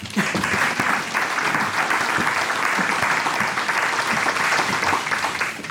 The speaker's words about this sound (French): applaudissons. Merci.